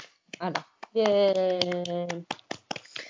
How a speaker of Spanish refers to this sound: Muy bien por ella. Un aplauso para Eowyn.